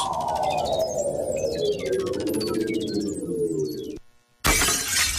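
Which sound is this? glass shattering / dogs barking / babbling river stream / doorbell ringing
glass shattering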